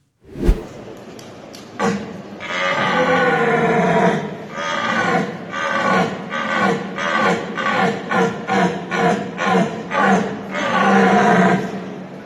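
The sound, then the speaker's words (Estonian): A man's voice imitates two fighting deer stags in the final of the 2021 European deer-calling championship, performed by the Estonian winner, opening with a few sharp knocks like clashing antlers, then a long run of loud, rhythmic, throaty grunts and bellows. “hirve peibutamise Euroopa meistrivõistluste finaalis tuli võistlejatel teha kahe võitleva pulli häält ja videos ongi nüüd uus Euroopa meister”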